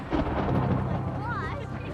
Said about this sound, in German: Ein Sturm braut sich langsam am weiten, orange glühenden Himmel Australiens zusammen.